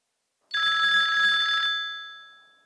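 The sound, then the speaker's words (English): A single loud burst of an electronic telephone ring as a call is placed to an expert, a bright steady trilling tone lasting about a second, then ringing off and fading into silence. No voices. “it looks like we're going to have to call our big kid expert”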